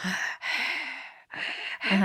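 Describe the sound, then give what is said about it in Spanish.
A voice imitates the heavy, raspy breathing of a possessed girl staring at nothing: three or four long, noisy breaths in and out with short gaps between them, fairly loud, with no words spoken. “Eh, como respirando así, viendo a la nada.”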